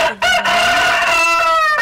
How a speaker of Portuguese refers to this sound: Tem o galo aí.